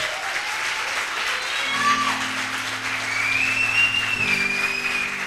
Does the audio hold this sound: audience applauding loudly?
yes